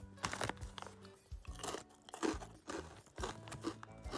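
Loud, repeated crunching of unusually thick potato chips, pieces about two sizes bigger than a 500-yen coin, being chewed, a steady series of sharp, crackly bites about every half second, with no talking.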